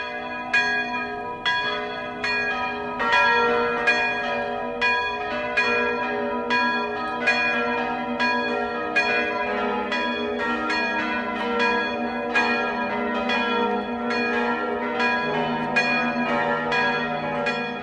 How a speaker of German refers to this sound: Es ist 12 Uhr. Das Mittagsläuten kommt heute aus Schwabach in Mittelfranken.